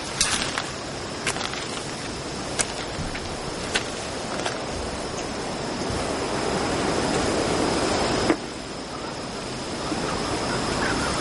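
Steady, close rushing of water fills the background, broken by a few brief splashes and drips at irregular moments, like a wet cloth being dipped and wrung out. No voices.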